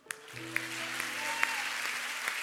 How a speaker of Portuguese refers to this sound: Mas hoje nós podemos aplaudir o Senhor pela vida de Lia.